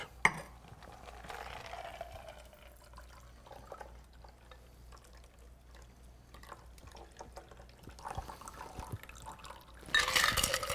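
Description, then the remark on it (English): A cocktail is poured into a coupe glass, a quiet, steady trickle of liquid lasting several seconds, ending in a brief louder burst of splashing near the end. No one speaks. “And then now that we once have it poured, we're gonna make the final piece of the puzzle, which is always the garnish.”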